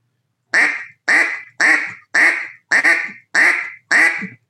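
Seven loud, raspy quacks blown on a duck call, evenly spaced in a steady rhythm, with short silences between each note and no talking.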